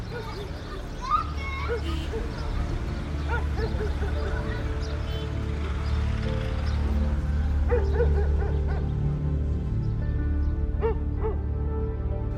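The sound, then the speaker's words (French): Several stray dogs in a town at night bark, yip and whine over one another in a scrappy squabble over something. Their cries rise and fall continuously against a steady low background rumble, fairly loud. “Elle entendait les chiens errants se disputer quelque chose quelque part dans la ville.”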